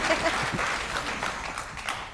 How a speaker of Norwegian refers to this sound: Applaus og greier var veldig hyggelig.